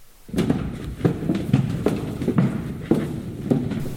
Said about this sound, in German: Deine Schritte, dein Räuspern, selbst dein Atem scheint dir ein bisschen zu laut.